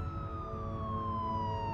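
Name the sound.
police car siren approaching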